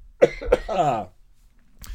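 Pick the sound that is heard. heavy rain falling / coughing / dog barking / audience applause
coughing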